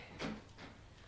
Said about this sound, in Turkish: Kız aç kapıyı! Geldim, geldim.